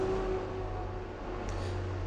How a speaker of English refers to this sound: Just like that truck going past, if it stays in that gear all day, we'll be in all sorts of trouble at the end of the hill.